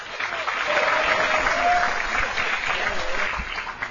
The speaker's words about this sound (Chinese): 著名儿童表演艺术家秦坤一上场就引来了台下的一片掌声。